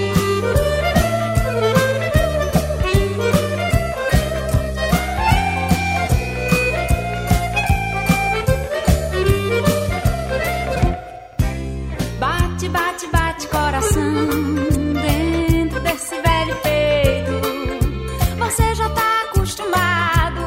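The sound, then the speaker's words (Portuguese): A lively, popular forró song about the heart plays loud, with a bright melodic line over a steady, driving percussion beat, briefly thinning out midway before the full band returns. “essa talvez seja a de maior sucesso e a mais conhecida que fala em coração dentro do forró.”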